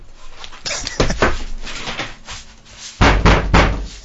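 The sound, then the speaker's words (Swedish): Loud, hollow thuds of a cat banging against a door, in two clusters of rapid knocks separated by a short pause, with no one talking. “Han bankar i dörren så jag fick ont i handen”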